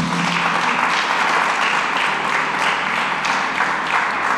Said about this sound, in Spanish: ¿Cuántos dicen aleluya? ¿Cuántos dicen gloria a Dios? Vamos, regálale un aplauso al Señor.